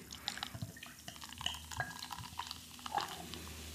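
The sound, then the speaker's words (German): Beer being poured into a glass: a steady run of splashing, gurgling liquid with bright fizzy crackles throughout, moderately loud and uninterrupted, with no one speaking. “Ich gebe jetzt ein bisschen was ins Glas.”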